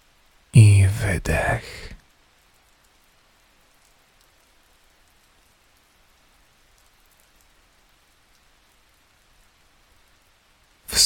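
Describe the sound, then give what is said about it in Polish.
Faint, steady rain patters far off, a soft continuous hiss lasting several seconds, after a brief loud breathy burst at the start. “wsłuchaj się w otulające dźwięki deszczu, który jest gdzieś daleko od ciebie.”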